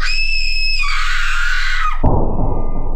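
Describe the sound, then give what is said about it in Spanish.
A servant woman lets out a long, piercing scream of horror with her mouth wide open, rising in pitch partway through, then breaking off abruptly into a dense, rumbling burst of noise. “Las plumas superiores volaron y la sirvienta dio un grito de horror con toda la boca abierta, llevándose las manos crispadas a los bandos.”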